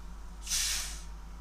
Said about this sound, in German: So, das ist Sprudelwasser, Mineralwasser kann man trinken.